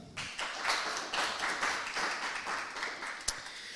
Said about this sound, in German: zumindest erstmal Applaus